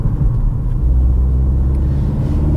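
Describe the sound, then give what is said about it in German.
A BMW car engine rumbles steadily with a deep, throaty exhaust note, holding a low, even drone throughout with a slight rise in intensity partway through; no voices. “In Sachen Motorsound hat BMW wirklich dazugelernt.”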